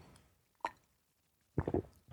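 A quiet sip of peppermint tea: a single soft wet plop, a pause, then a short cluster of slurping, gulping sounds, with no talking.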